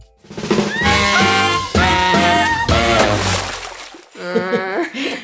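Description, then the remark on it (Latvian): A loud quiz-show wrong-answer sound: a few seconds of blaring, buzzy tones in three sustained bursts, then a short run of wobbly, falling notes to finish. “Tagad jūs dzirdēsiet, kā izklausās signāls, kad atbild nav pareiza.”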